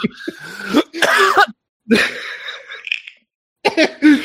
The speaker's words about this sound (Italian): tossisci e continua a svapare. Sto svapando